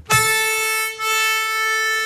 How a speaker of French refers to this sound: On parle de nos différents harmonicas qui à l'intérieur de l'accordéon, on rajoute des voix.